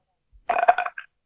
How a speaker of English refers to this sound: That, was a burp. That was a burp.